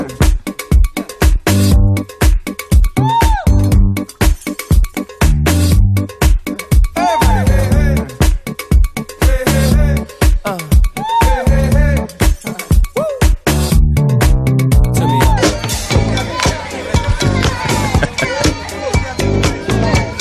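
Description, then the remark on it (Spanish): An upbeat pop song plays loud for the whole stretch, with a steady driving beat, layered instruments and a melodic singing voice riding on top. “una canción aparentemente original de …, muy animada, un temazo que suena así.”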